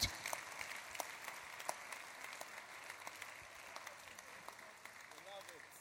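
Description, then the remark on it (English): An audience claps steadily for several seconds, a dense, continuous patter of many hands at moderate volume with a few sharper claps standing out. “Those who hear gladly are clapping.”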